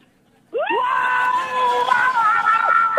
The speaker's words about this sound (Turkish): Ormandasınız değil mi? Ormandasınız. Orman kaçkınları. Bağırarak koş, bağırarak.